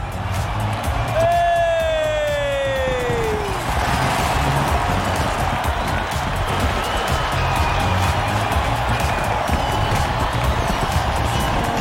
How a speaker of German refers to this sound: Ein Riesenapplaus für